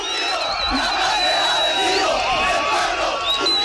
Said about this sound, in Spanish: ¿Ese lo escuchás? Se escucha el, retumbar de ahí de la manifestación.